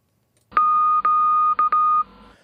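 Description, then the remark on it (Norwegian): A steady, clear electronic tone is keyed on and off with a Morse key in a few beeps of uneven length, some long and one short, with brief gaps between them. It sounds fairly loud, with no voices. “Få høre på nøklingen en gang, da.”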